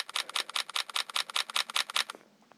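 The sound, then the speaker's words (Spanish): A rapid, steady burst of phone camera shutter clicks in burst mode, about 40 photos taken in quick succession over about two seconds, crisp, then it stops abruptly leaving near silence. “Y como pueden ver, toma muchas fotos.”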